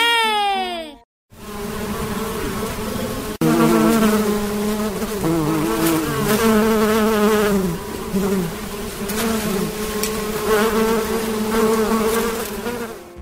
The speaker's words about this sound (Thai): เสียงนี้เป็นเสียงของพึ่งกำลังดูดน้ำหวานจากเกสรดอกไม้ค่ะ